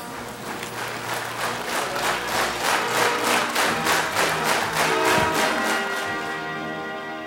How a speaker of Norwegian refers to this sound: vi fortsetter applausen for vinneren fra Kvitt eller dobbelt i 1985